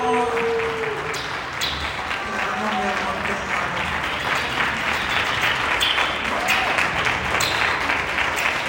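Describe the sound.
Sustained applause from an audience, a dense steady clatter of many hands clapping at a fairly loud, even level for several seconds, with faint voices mixed underneath.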